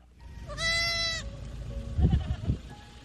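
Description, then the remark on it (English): A baby goat trapped in a pit in the Philippines, being rescued by a family, gives one high, wavering bleat, loud, followed by a couple of deeper answering calls and some low rustling and thumps in the background. “A family in the Philippines rescued a baby goat that was trapped in a pit and then helped reunite it with its mother, and this is what it sounded like.”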